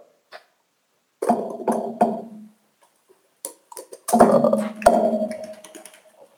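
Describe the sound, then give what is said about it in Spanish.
Typing on an office keyboard: irregular bursts of clattering key presses in two short flurries, with brief pauses between, fairly loud and with no voices. “Este es un teclado de oficina. Escucha.”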